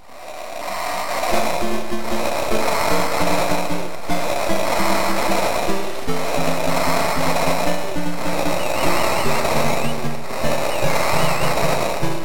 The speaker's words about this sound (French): on a la petite intro par exemple de, euh, Team Tag. Euh, qu'on peut entendre en fond derrière, mais est-ce qu'on peut réellement parler de thème musical